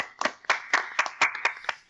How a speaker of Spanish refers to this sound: ¿les puedo pedir un aplauso? Sí. Pídame un aplauso, por favor. un aplauso, un aplauso. Deme un aplauso.